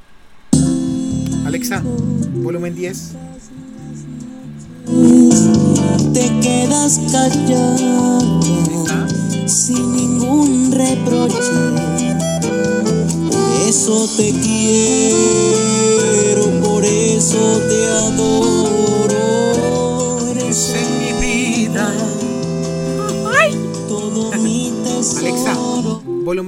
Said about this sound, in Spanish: Y bueno, de una vez vamos a ver cómo se escucha pues, eh, bueno, la música con, en la bocina de integrada. A ver.